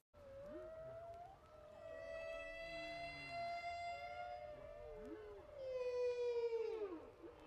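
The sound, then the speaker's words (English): Long, sustained whale calls used as ambient sound in a song, with rich harmonic overtones drifting and sweeping in pitch, some rising and falling moans, layered over a soft ambient wash with no talking. “So the yeah, the ambient whale reminded me of that.”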